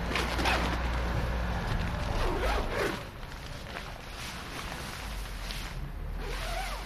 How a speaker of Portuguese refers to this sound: de joelhos, faz correr o fecho da entrada da tenda, que já foi azul.